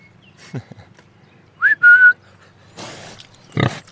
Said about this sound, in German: nachdem … ein paar Mal gerufen und gepfiffen hat, kommen zwei große Schweine herbeigelaufen